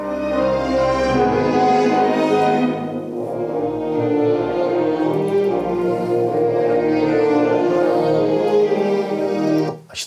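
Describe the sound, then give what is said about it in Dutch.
A full orchestral passage with sampled strings plays on its own, lush sustained strings holding rich chords at a steady, fairly loud level for about ten seconds before cutting off abruptly. “Ik, sla, ik laat even een stukje horen van alleen het orkest, bijvoorbeeld.”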